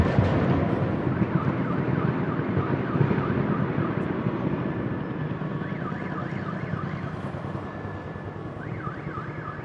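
vehicle, car alarms going off

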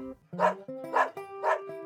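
animal, dog barking

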